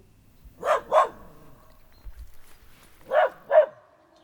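dog barking

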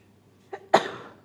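sneeze

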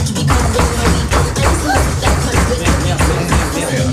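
knocking on a door

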